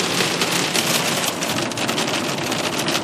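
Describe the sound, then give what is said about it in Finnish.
Steady rain pours down in a dense, hissing wash while the sun shines, drops pattering continuously on a surface with no voices, loud and unbroken throughout. “Aurinko paistaa ja vettä sattaa.”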